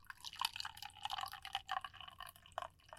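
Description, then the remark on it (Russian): Herbal tea with chamomile, linden and mint pours from a thermos in a steady, splashy stream with small gurgling bursts for about three seconds, fairly quiet, with no one talking. “Это мой чай, ребята.”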